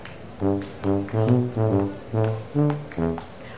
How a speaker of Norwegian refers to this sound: Og hvorfor spiller den lyder uten at det er noen der? Har de festa tubaen til en hund? Eller har de festa en hund til en tuba?